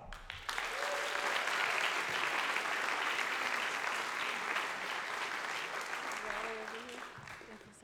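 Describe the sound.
Sustained audience applause at an evening recognition event for a class, welcoming the Director of College Access and Alumni: a dense wash of many hands clapping that starts abruptly and holds steady for several seconds before tapering slightly, with faint voices calling out underneath.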